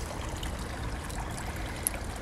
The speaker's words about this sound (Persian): نزدیک هتلمون یه فواره است که دو تا مرد توی مجسمه وسط این حوز یه نفر دیگه که انگار زخمیه رو بغل کردن به عادت قدیمی مردم اروپا هر جا که یه حوز و فواره میبینی کفش چند تایی سکه هم هستش که هر وقت کسی آرزویی داره سکه میندازه توش صدای فواره